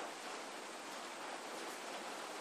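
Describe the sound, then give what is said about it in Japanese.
A sudden evening summer shower (yuudachi) roars as a dense, steady hiss, constant and fairly loud throughout, with no voices or other distinct sounds on top. “え何雨はびっくりした見えないよね落ちてないよね見えるはいまあまあ大丈夫でしょうはいあ今ちょっと夕立がいきなり来て”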